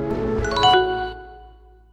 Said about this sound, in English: For the shutdown sound, Microsoft used a quick descending xylophone.